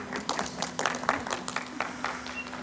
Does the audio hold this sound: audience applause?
yes